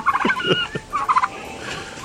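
Four angered turkeys chasing a young man gobble in two quick, warbling bursts, a rapid rattling run of high gobbles, a brief pause, then another loud burst, followed by softer background noise. No one speaks.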